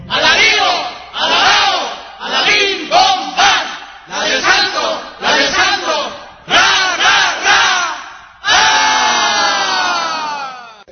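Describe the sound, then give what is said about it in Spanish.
A crowd shouts "viva" together for the saint of the day in a loud, rhythmic series of short chanted bursts, finishing with one long, drawn-out collective cheer that fades slightly at the end. “Y al unísono gritemos viva, viva, y tres porras por el santo que es el de hoy.”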